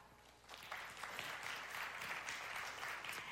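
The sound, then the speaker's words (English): Audience members who own an Alexa clap when asked to, a steady, dense patter of many hands, starting softly and quickly swelling to a sustained, even burst of applause with no voices over it. “Now, the first one, uh, how many of you have an Alexa? Will you clap?”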